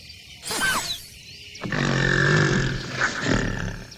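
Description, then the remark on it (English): A gorilla, just hit in the thigh by a tranquilizer dart, shrieks loudly: a short harsh cry, a brief pause, then a longer raspy, roaring scream that wavers for several seconds before tapering off. “The dart hit him right in the thigh, and it didn't hurt too much, or Inyange would have shrieked much louder.”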